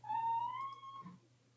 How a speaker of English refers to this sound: Is your cat okay